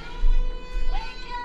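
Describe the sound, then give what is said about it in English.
A steady electronic alarm tone, an alarm set for 3:10, sounds continuously, its bright, sustained pitch holding at moderate volume with faint low rumble and a brief voice-like murmur underneath. “Why that was my alarm.”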